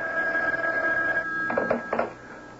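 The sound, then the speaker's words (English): A telephone bell rings with a steady metallic tone, followed by two short bursts near the end, moderately loud, with no one speaking. “Saved by the bell. Don't count on it. Go ahead, pick it up”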